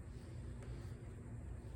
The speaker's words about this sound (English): if you have an air conditioner or if you have like a fan or whatever, you can notice this. Notice see if you can notice more than one sound within this air conditioning